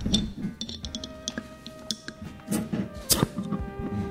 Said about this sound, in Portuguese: É, vamos abrir as garrafas? As garrafas, as garrafas. Vamos abrir, depois você explica o que, que a gente vai beber.